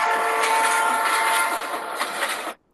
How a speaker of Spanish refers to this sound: Ok. Listo, sonó nuestra alarma.